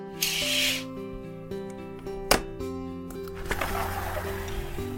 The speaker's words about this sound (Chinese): 每天起床之后，柴犬巧巧总是会先将房间的窗帘拉开